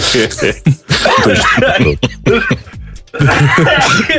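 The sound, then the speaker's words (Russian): A loud coughing fit brought on by laughing: a run of harsh, raspy coughs in quick, uneven bursts, mixed with breathy vocal sounds. “Не сешь меня так смешить, я кашляю.”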